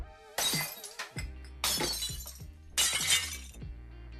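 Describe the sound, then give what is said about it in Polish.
Glass is deliberately smashed three times in a row, each loud crash bursting into bright shattering and tinkling shards that fade before the next hit. No one speaks. “A, jak masz za dużo emocji, jesteś trochę wkurzony, e, no to kurczę, e, możesz zrobić to ze szkłem.”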